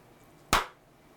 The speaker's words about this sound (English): They did say whenever you make a mistake, clap so it'll spike on the audio when you're editing and you'll know where to start.